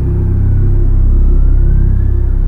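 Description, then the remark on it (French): The engine of a recent-model sedan idles with a heavy low rumble on the rooftop top floor of a Brussels parking garage, its pitch rising slightly as it revs gently before settling to park. It is steady and continuous throughout, with no voices. “Une berline de fabrication récente stationne, moteur coupé.”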